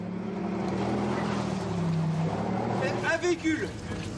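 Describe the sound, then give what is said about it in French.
Landing boats carrying French Foreign Legion soldiers during a French military amphibious landing exercise rumble with a steady, loud low engine drone and a broad wash of water and wind noise, while faint voices break through briefly near the end. “En débarquant des bateaux, ces légionnaires ont en tête les faits d'armes de 39-45, comme ceux de leur unité, la célèbre 13e demi-brigade de la Légion.”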